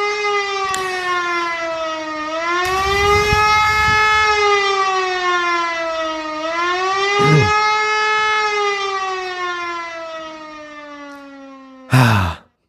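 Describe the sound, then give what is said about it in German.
An air-raid siren sound, started by pressing a button, wails steadily, its loud, buzzy tone slowly dipping and rising in pitch for about twelve seconds before cutting off abruptly. No one speaks. “Fliegeralarm.”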